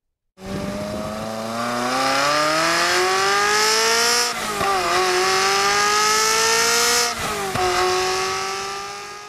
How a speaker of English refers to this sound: This, on the other hand, is what a naturally aspirated V8 sounds like.